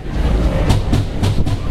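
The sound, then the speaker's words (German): Rhythmic pounding like a meat mallet, a sound that recurs now and then: four sharp, fairly loud thuds in a quick, slightly uneven beat over a steady low rumble, with no voices. “Das ist der Schnitzelklopfer, der kommt ab und zu.”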